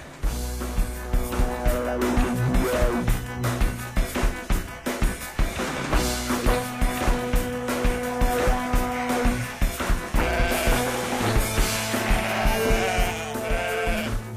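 A large flock of sheep bleating loudly and continuously, many overlapping wavering cries, with a steady low rumble underneath throughout.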